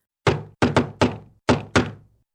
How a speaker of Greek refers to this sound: Τότε τα γουρουνάκια έτρεξαν γρήγορα γρήγορα και ζήτησαν καταφύγιο στο σπίτι του άλλου αδελφού έρχεται ο κακός ο λύκος και ξαναχτυπάει την πόρτα.